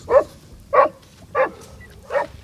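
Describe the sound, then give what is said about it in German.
A Dachsbracke hunting dog named Gustl barks four times at a nutria burrow in the bank at an inlet to a fish pond, in a steady, evenly spaced rhythm, each bark short and fairly loud, with a faint outdoor background and no one talking. “Und an so einer Einmündung zu einem Fischteich, da ähm, begann Gustlein auf so eine ganz bestimmte Art zu bellen.”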